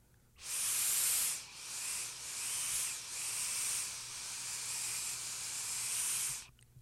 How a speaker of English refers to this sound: Sounds sharp to me. This drip theory coil is giving me uh, spectacular airflow.